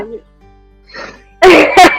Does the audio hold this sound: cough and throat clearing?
yes